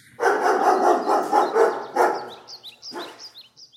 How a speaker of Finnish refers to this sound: saanko mä kutsua koirat esiin ja saanko mä pyytää heiltä pienen äänimerkin, jotta me päästään eteenpäin?